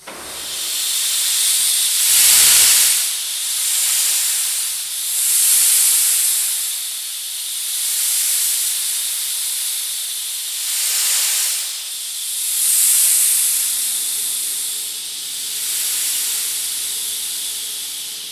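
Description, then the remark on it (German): Compressed air from storage bottles hisses loudly and steadily through a large starting valve opened by a machinist to feed an engine, swelling in repeated surges every couple of seconds, with a faint low mechanical hum appearing toward the end. “Also ein Maschinist öffnet ein großes Ventil und das war das Anschlagventil und dieses Zischen äh, bedeutet, dass die Luft”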